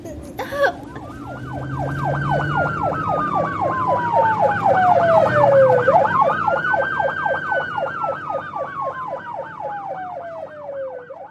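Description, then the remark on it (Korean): A loud siren wails continuously, sweeping slowly up and down in long cycles layered with a faster yelping warble, over a low engine rumble. “사이렌 켜주세요.”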